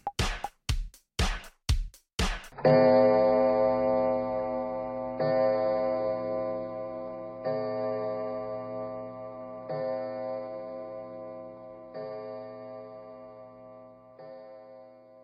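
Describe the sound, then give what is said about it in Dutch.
A clock ticks in a quick, steady run of sharp clicks for a couple of seconds, then gives way to loud, ringing chimes that strike at slow, even intervals and fade gradually. “Het is altijd klokslag 12, ergens in de wereld van podcasting.”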